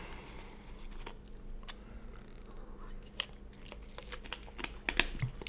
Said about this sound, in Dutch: Ik neem even een slokje water.